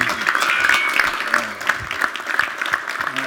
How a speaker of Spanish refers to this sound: Bishop, vamos a darle un aplauso fuerte al obispo Boone.